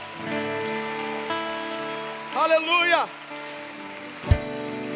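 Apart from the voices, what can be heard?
audience applauding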